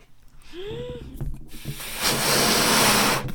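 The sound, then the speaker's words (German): A silver foil balloon is inflated for a silver wedding anniversary: crinkling and a short rising squeak, then a loud, steady rush of hissing air that runs to the end. “Und zwar ist das ein silberner Ballon, weil wir heute die silberne Hochzeit feiern.”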